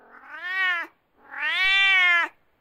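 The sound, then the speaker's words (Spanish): A cat meows twice, fairly loud: a short drawn-out cry followed by a longer, rising-and-falling one after a brief pause, with no one talking. “Aquí viene un gato.”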